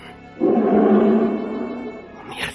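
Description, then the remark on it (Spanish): A shepherd dog growls in one long, deep, rumbling snarl that holds steady for about two seconds before tapering off, loud and with no voices over it. “Sí, es un perro pastor o algo así.”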